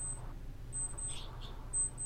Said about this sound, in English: Is your alarm yeah. going off? Oh, sorry.